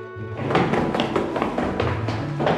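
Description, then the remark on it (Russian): An apartment door thuds shut, with a series of dull knocks and rattles as it's handled and closed, over a faint low background hum. “Володя выбегает из квартиры, забегает, чмокает тебя в щеку, выбегает обратно. Стараясь сдерживать улыбку, ты закрываешь за ним дверь.”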